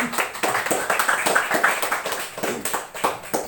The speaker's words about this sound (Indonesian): Minta tepuk tangannya terlebih dahulu.